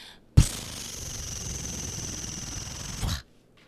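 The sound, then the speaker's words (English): A page turn noise heard as a single sustained papery rush, starting abruptly and lasting nearly three seconds before cutting off, fairly loud with nothing else around it. “Wolverine patches page turn noise.”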